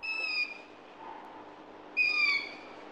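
Two shrill, wavering owl screeches, each about half a second long, come a beat apart against a quiet background, with no talking.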